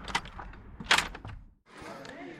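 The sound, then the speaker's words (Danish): A door opens with a sharp clunk and swings shut as someone enters a building whose parking lot is packed with cars, followed by a brief hush and then the busy murmur of people inside, with faint voices in the background. “Og nu øh, kommer jeg hen til, til døren her, så jeg er lidt spændt på at se, hvor mange der egentlig er herinde.”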